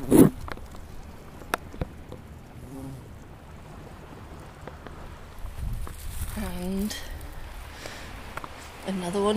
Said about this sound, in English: Oh, now this is interesting. That's a garden bumblebee, but it's a queen. It's huge. And she's making this wonderful buzzing noise really deep.